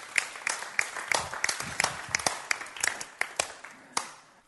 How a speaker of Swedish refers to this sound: Jag tyckte de gjorde det bra här uppe. Jag tycker vi kan ge dem en applåd, de som höll på här.